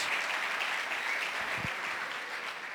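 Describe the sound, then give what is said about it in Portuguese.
A church audience applauds for Jesus steadily, a dense wash of many hands clapping at an even, fairly loud level throughout, with no voices standing out above it. “Uma salva de palmas para Jesus, o Senhor dessa casa, dessa igreja, para a glória do Senhor Jesus.”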